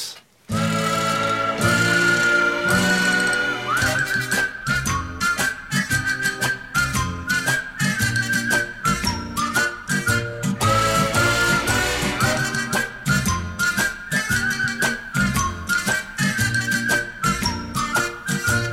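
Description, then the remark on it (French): A bright, tuneful melody whistled by two men rides over a 1967 pop arrangement with strings, brass and steady drums, the whistling clear and prominent throughout the music. “Vous verrez l'utilisation dans la deuxième partie des cordes, des cuivres. Et puis les sifflements”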